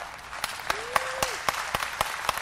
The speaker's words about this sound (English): Then he says, It's a good time to clap.